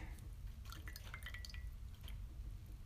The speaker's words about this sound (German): Oh, mein Tee schmeckt gerade voll bitter. Was ist das? Vielleicht sollte ich auch mal den Teebeutel, der seit 30 Minuten da drin ist, rausholen. Das wäre vielleicht eine ganz schlaue Idee,